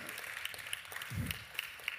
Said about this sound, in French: si vous pouvez l'applaudir, le remercier encore le matin.